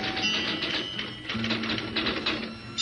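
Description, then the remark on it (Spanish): A telegraph on the corner of a town square, opposite the command post, clicks in a rapid, steady mechanical rhythm as it transcribes telegrams, moderately loud, over a faint low hum with no voices. “y en la esquina de la plaza frente al comando comienza el ruido del telégrafo que transcribe uno que otro telegrama.”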